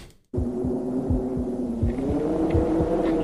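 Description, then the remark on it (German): A steady, rhythmic heartbeat thumps, repeating regular low pulses over a constant droning hum, with no voices present. “Es ist tatsächlich Herzschlag.”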